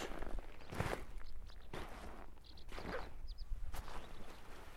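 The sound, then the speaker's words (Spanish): Footsteps crunching and rustling over piled-up life jackets on a beach near Moria, about four slow, steady steps underfoot, each a soft, broad scuffing burst, with faint outdoor background noise between them. “Y lo que oís bajo nuestros pies es el sonido de esos chalecos.”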